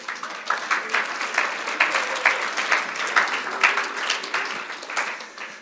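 An audience applauds steadily for several seconds for a young man called to the front, a dense, crackling wash of many hands clapping at an even level with no voices over it.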